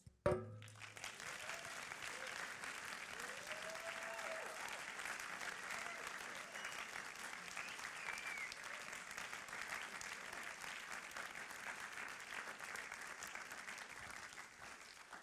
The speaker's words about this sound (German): Und jetzt, bis dass ich das T-Shirt anhabe, habe, gebt Gott einen Applaus.